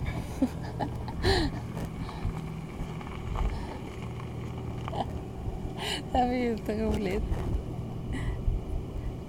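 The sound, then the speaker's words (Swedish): A car's engine rumbles low and steady as a car comes along while people talk and laugh, the vehicle sound staying fairly constant rather than clearly swelling past. “Ja, och nu kommer det en bil.”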